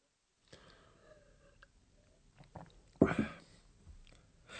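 Wet mouth sounds of someone taking one big sip of beer, with soft sips building to one loud gulp partway through, then a few quieter swallowing noises and a breath.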